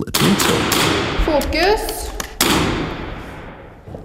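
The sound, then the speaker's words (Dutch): Several sharp rifle shots crack out at irregular intervals, each a loud, abrupt bang with a short echoing tail, while a man speaks briefly between them, during shooting practice at a school in Norway. “ze houden schietoefeningen en ze leggen eruit uit hoeveel deugd dat ook doet”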